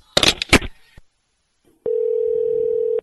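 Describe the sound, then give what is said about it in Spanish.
A handset clatters as a radio show host hangs up on a caller, then after a second of silence a steady, unbroken mid-pitched dial tone hums until the end. “The only thing I can do is hang up on you if you want.”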